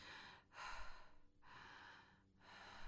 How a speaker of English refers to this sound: and it's just to me it's wow. beautiful and very yeah. goddess and very sensual so that type of breathing